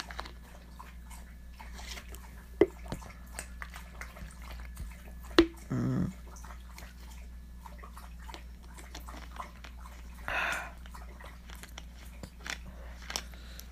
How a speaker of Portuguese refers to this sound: Ah, não, ela vem beber água. Tá bom, vamos beber água juntos, Ventina.